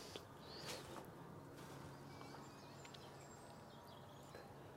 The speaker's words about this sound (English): And there are a lot more birds about all day, really, but particularly the early mornings, of which this is not. It's gone seven o'clock. And the evenings.